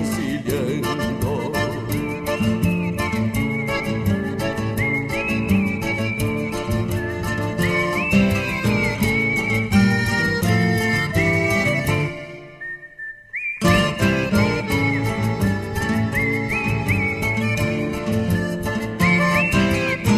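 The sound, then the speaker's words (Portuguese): Someone whistles a lilting milonga melody over a steady strummed guitar accompaniment, the tune rising and falling in clear phrases, with a brief pause midway before the music resumes. “alguém de alma lavada debruçar-se no violão e tocar um milongão pra assobiar desencilhando”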